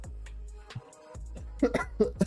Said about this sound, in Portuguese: Até tossi.